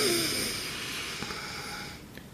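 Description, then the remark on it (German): A slow, airy intake of breath during a guided breathing exercise, a soft steady hiss drawn out over about two seconds, quiet and unbroken, with a couple of faint clicks near the end and no talking. “Und jetzt atmen wieder ein.”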